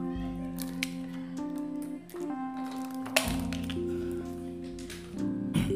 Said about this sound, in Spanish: Estoy un poco Estoy un poco reseco durante el día de hoy. Déjame darme un buche de agua.